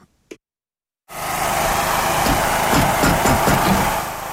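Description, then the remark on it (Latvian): After a brief knock and a second of silence, the engine of a specially equipped car for a three-person mobile care team starts up at the multifunctional centre in Skrudaliena, Augšdaugava municipality, and runs steadily and fairly loud, with a rough low rumble that fades slightly at the end. “Tieši no šejienes speciāli aprīkotā mašīnā ikdienas izbrauc mobilā brigāde triju cilvēku sastāvā lai apciemotu vientuļos sirmgalvis un cilvēkus ar īpašām vajadzībām visā”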